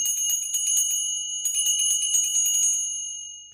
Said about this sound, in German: Und in den meisten Kirchen wird dann an diesem Augenblick vielleicht auch noch die große Kirchenglocke geläutet und der Ministrant klingelt dann auch nochmal.